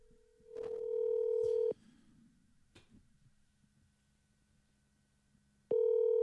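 A loud, steady electronic telephone busy tone from a call that did not go through sounds for about a second, stops, and returns near the end after a stretch of faint hum and small clicks.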